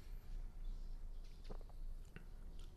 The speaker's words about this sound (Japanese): もうシュワシュワやってますよ音聞こえますか入れた瞬間にシュワシュワ鳴ってますよ